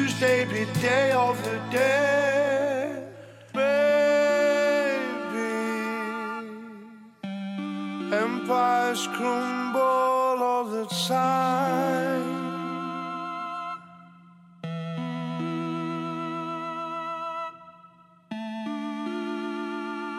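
A rock song by a British band plays with layered, effects-heavy guitar and sustained, wavering melodic lines. It moves through several loud sections with brief drops between them, and no one talks over it.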